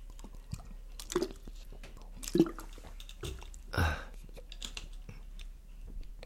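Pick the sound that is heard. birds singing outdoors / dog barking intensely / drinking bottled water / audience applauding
drinking bottled water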